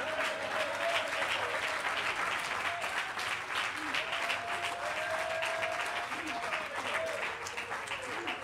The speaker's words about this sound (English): Oh, clap your hands and love the Lord with me tonight.